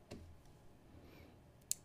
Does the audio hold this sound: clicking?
yes